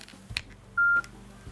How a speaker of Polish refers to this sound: Tak, tylko telefon wydał z siebie dźwięk.